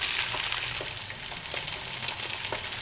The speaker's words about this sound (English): Looks like a frying pan and some eggs to me.